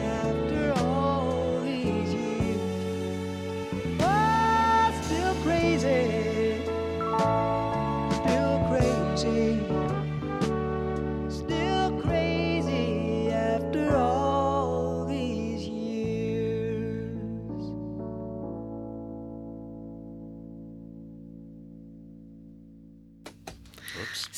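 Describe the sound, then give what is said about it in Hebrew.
A recorded pop song plays with a sung vocal line over steady instrumental backing, holding fairly loud before gradually fading out toward the end. “אנחנו ככה שומעים את המוזיקה ותוך כדי uh, מדברים, והזמן עובר כל כך מהר שככה לא שמים לב, והנה עוד uh, השיר כבר ככה חלף.”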